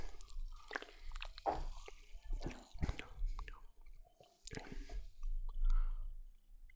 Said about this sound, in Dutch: Ik ga eens een slokje nemen.